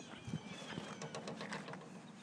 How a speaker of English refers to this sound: Um, there's a flock of birds. a gaggle of birds. Probably hear, listen.